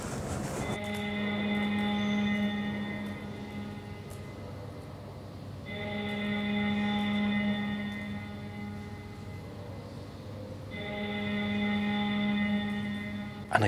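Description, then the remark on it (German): A parliamentary division bell, summoning members of parliament to a session, rings at 6:30 pm in three long, steady bursts of several seconds each, separated by brief pauses. The tone is loud, electric and buzzing, with no one talking over it. “das ist die Klingel für die Abgeordneten, die jetzt eine Sitzung haben”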